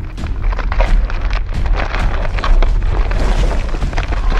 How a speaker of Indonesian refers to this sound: Wah, ada gempa. Awas, awas. Ayo semua turun.